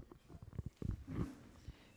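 A tiger's deep, rumbling roar, fairly loud, coming in a series of rough, growling bursts with one longer swell in the middle and a final short grunt.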